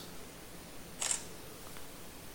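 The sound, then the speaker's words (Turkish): A single crisp camera shutter click as a photo is taken, brief, sounding once in the middle of an otherwise quiet stretch with faint background hiss. “Fotoğrafı da çektim burada sesi duydunuz.”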